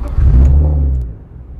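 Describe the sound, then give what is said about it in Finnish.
A 2.5-litre, 225-horsepower six-cylinder rally car engine is started and revved before a test drive on a gravel-pit track, a loud, deep rumble that swells quickly and then settles into a lower idle, with no voices. “Hyvin muuten pörähtää tuommoinen kone.”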